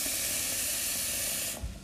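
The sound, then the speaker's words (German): Water runs steadily into a medium-sized cooking pot, filling it about half full (probably about a litre) for cooking rice, as a loud, even rushing hiss for about a second and a half, then cuts off, followed by a soft low thump. “Also nehme ich meinen mittelgroßen Topf und fülle den so halb voll.”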